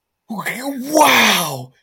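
One drawn-out voiced gasp of surprise, rising and falling in pitch before trailing into a breathy exhale, delivered like an exaggerated vocal reaction with no other sounds around it.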